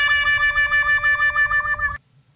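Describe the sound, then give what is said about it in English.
A loud, bright horn sound effect blares for about two seconds in a steady, pulsing tone with a slight wobble, then cuts off abruptly. No one speaks over it. “Do you have a, a, a horn?”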